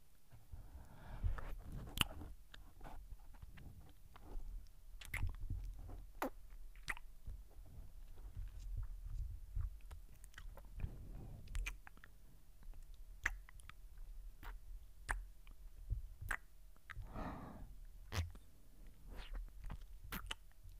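Wet ear-licking and mouth sounds in a Japanese-language ASMR role-play, with soft smacks, slurps and clicks repeating in an uneven rhythm at the ear, quiet and intimate with no talking.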